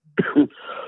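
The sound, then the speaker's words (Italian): A single sneeze: a quick two-part burst, loud and sharp, trailing off into a soft breathy hiss. No one speaks. “eh, salute.”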